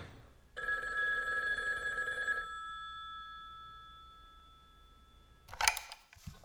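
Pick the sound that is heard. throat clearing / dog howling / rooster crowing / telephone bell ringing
telephone bell ringing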